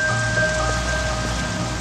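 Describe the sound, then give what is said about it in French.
Steady rain falls on a hard surface in a dense, continuous patter that stays fairly loud throughout, with a faint tonal hum underneath and no voices. “La pluie qui tombait ce soir-là.”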